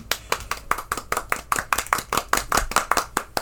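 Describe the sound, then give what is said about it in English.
A brief round of applause for sponsor Music Go Round in St. Charles, Missouri: brisk, steady, sharp hand claps repeating about five times a second for a few seconds with no voices. “Uh, big shout of uh, shout out, round of applause to them.”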